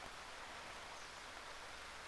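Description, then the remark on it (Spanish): Steady, subtle light rain falling in the dry season, a continuous soft hiss of drops with no breaks or distinct events, fairly quiet and even throughout, with no voices. “Habrás escuchado que el sonido de fondo ha aumentado paulatinamente y es que se ha puesto a llover.”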